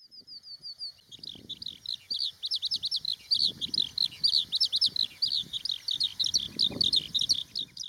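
A skylark pours out a continuous, rapid, high-pitched warbling song of trills and chirps, a short thin whistled series at the start, with low rumbling noise underneath.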